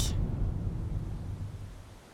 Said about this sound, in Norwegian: Vi går opp til en nydelig foss.